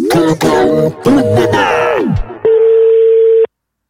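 Wavering electronic tones with short gaps give way to one steady, mid-pitched telephone ringing tone lasting about a second as a call is dialed, then it cuts to silence.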